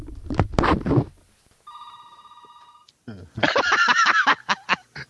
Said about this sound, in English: my telephone is ringing. That means I have to put a quarter in the jar.